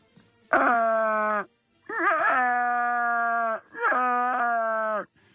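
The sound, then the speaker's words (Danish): A voice imitates the Wookiee growl of Chewbacca: three loud, drawn-out throaty wails with a wavering, rising-and-falling pitch, each about a second long and separated by short pauses. “Hvis den kun kan sige sådan, så ved jeg ikke, hvor meget man får ud af det.”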